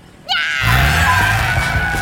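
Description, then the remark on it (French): A loud, sustained tire screech with a high squealing whine over a low engine rumble, as a car driven by Zig skids while reversing, continuous for about two seconds. “Oh non Il fait marche arrière, le malin”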